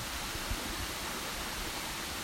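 A steady, continuous rush of water from a waterfall pours on without a break, dense and even in loudness throughout, with no voices.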